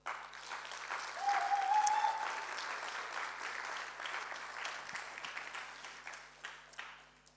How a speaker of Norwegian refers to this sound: Kan gi dem en applaus.